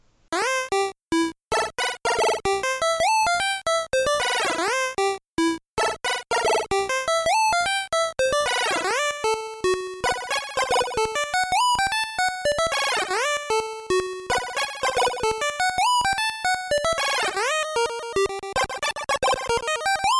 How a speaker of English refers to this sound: he has a demo on his website where he's showing off the effect where he just takes a simple melody from Super Mario Brothers and um, just goes nuts with the effect. So yeah, uh, take a listen.